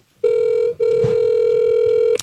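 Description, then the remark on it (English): A cell phone call connecting, with a loud, steady electronic ringing tone that breaks briefly and then holds for well over a second, clear with no talking. “I'm going to call him literally from my cell phone.”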